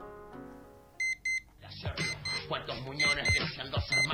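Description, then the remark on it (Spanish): A clock radio alarm goes off in the morning: two sharp electronic beeps, then a radio broadcast with talking switches on loudly, while faint beeps keep chiming over it. “Dejé sonar el despertador con la radio hasta que junté fuerzas y lo apagué.”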